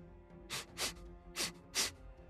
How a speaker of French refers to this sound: Est-ce qu'elle fait un bruit de grognement, un bruit de... ou c'est vraiment juste euh, aussi silencieux que... T'as entendu juste deux grandes, lourdes respirations, c'est tout. T'étais pas si près que ça.